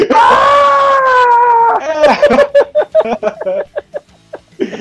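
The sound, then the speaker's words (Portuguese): A loud, high-pitched metal-style scream holds steady for nearly two seconds, then breaks into a rapid string of short, choppy vocal bursts, prominent with nothing else behind it. “Porque realmente é um grito, sabe? É um grito.”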